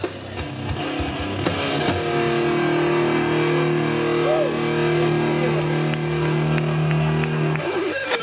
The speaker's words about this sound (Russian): есть запись э, знаменитая в узких кругах, где я ломаю гитару.